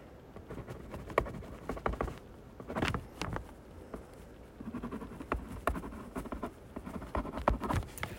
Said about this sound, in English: Let me write something down.